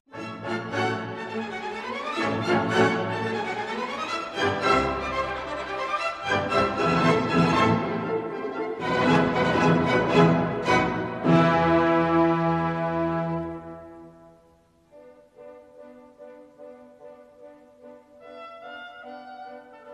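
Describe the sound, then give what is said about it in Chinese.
A recording of the orchestral overture Die Fledermaus (The Bat Overture) plays on its own, full and lively, with bright chords and busy passages, then eases into a quieter stretch of long held notes near the end. “这首作品的名字叫做《蝙蝠序曲》。这首音乐被大家所熟知，是因为它出现在了一个知名动画片里，就是《猫和老鼠》里哈。”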